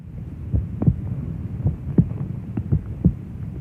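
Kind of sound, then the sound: human body sound, heartbeat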